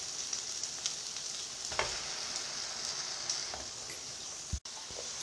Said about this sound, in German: Hört man eigentlich im Hintergrund das Brutzeln? Könnte schon gut möglich sein. Ja, okay, man hört's.